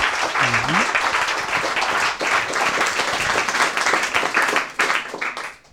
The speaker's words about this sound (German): Ähm, auch nochmal bitte eine große Runde Applaus für unseren letzten Vortrag.